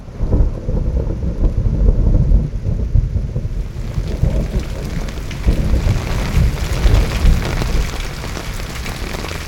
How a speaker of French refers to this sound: Après avoir affronté la pluie et le vent pendant une journée